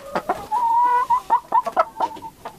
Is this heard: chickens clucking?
yes